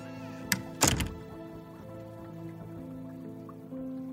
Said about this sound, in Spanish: continúa entonces su camino por el pasillo y cierra la puerta de su quirófano tras de él.